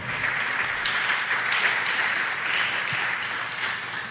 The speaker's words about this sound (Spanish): Ese aplauso es para Dios, yo creo que podemos hacerlo mejor.